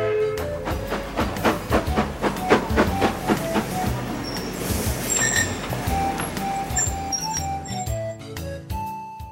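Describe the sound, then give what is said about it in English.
A train rolls into a station with a steady clickety-clack of wheels over the rails that slows down, then high metallic brake squeals ring out as it comes to a stop. “A train was pulling in.”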